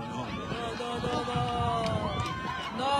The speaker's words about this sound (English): Yeah, half of them are cheering, half of them are booing.